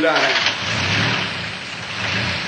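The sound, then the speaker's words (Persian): A loud milk-transport truck engine turns over and keeps roaring with a steady, rough rumble for a couple of seconds. A brief muffled voice is heard at the very beginning. “گربه ها با موش کوچولو بیدرنگ عقب ماشین پریدن و از شانس خوبی که داشتن ناگهان متوجه شدن که سوار یک کامیون حمل شیر هستند”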